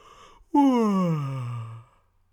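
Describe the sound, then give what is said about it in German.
A single drawn-out, hearty yawn made while stretching, fairly loud, opening with a sharp breath and sliding down in pitch into a long voiced exhale that fades out. “Nachdem du das ein paar Mal ausprobiert hast, kannst du wieder aufstehen, dich recken, strecken und herzhaft gähnen.”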